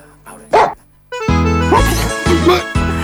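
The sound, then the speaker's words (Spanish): A dog barks loudly, a sharp yelp followed by a run of harsh, repeated barks over about two seconds, with no talking. “Este perro sigue tan molesto como siempre.”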